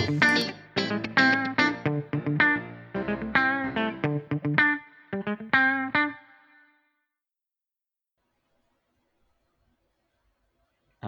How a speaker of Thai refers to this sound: จริงๆเราไม่ต้องสวัสดีกันบ่อยก็ได้นะครับ แต่ว่าเราเราไม่ชินนะกับการที่มีจิงเกิลไปสวัสดีเรียบร้อยแล้วนะครับ